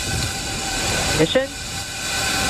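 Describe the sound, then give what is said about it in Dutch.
A SpaceX rocket launch rumble at liftoff of the second crewed SpaceX mission, Crew-2 aboard Endeavour, from the Kennedy Space Center in Florida: a steady, broad roar that fills the whole stretch without letting up, while a voice briefly speaks a single word over it midway. “Ja, liftoff. Eh, dat is het geluid van de tweede SpaceX-missie.”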